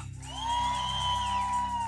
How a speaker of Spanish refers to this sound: Habrá una iglesia que pueda dar un grito de júbilo.